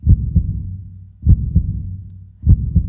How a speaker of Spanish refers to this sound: No sé si la única forma en que lo podía comparar, no sé si ustedes han podido escuchar el ritmo del corazón sano cuando late.